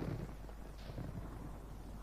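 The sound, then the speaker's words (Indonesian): A voice imitates a strong gust of wind with a steady, breathy whooshing hiss that holds for about two seconds, fairly quiet, with a low rumble underneath and no other sounds. “Shhh. Angin bertiup kencang”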